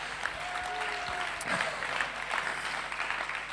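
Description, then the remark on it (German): An audience bursts into sustained applause, a standing ovation for the speaker's goalkeeper, many hands clapping in a dense, steady roar that holds at a fairly even level throughout, with no one speaking over it. “Klatsch mal ganz auf Standing Ovation für unseren Torwart.”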